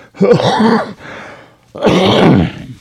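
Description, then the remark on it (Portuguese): Two rough, forceful coughing bursts from one person, separated by a brief, quieter breathy pause; each burst is loud and harsh, with no talking. “Vou dar uma tossida.”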